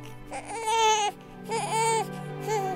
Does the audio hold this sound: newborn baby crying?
yes